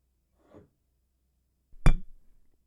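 Glasses clink together once in a toast, a sharp, bright knock with a short ringing tail, preceded by a faint soft rustle in otherwise quiet surroundings.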